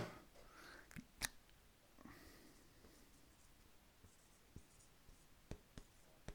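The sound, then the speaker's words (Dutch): A pen scratches across paper in short strokes and sharp taps as a question mark is drawn, fairly quiet, with brief pauses between marks and no talking. “Ja, dit is een mooie vraagteken. Het is een kunst hoor, vraagtekens.”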